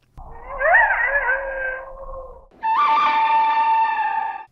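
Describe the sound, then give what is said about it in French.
A western film's main theme, a wailing two-note musical phrase composed to resemble a coyote howl with alternating notes: a lower, wavering note that slides and bends, then a brief gap and a higher, steady sustained note, loud with no talking. “a composé le thème principal pour qu'il ressemble au hurlement d'un coyote avec ses deux notes alternées.”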